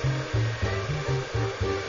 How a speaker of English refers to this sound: Next is the hair dryer that blows the salad into his mouth.